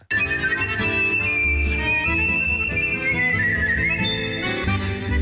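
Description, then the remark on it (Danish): A world champion whistler whistles a clear, sustained melody with smooth gliding notes over a full, steady instrumental accompaniment including accordion, loud, with no talking. “Ja, og først der vil jeg gerne lige have lov til at præsentere øh, en øh, verdensmester i kunsten at fløjte.”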